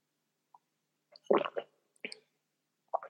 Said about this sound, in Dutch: Neem even een slok water.